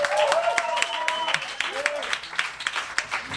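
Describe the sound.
An audience at a storytelling night claps steadily for a few seconds, dense overlapping hand claps with scattered whoops and cheering voices rising above, fairly loud.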